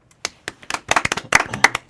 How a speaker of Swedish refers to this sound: En applåd!